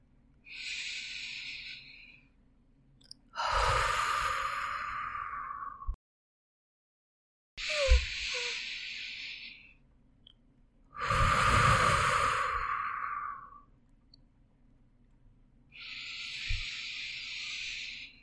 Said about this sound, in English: Continue your deep breathing and allow yourself to be with the breathing, with the noises around you, and give yourself 100% presence.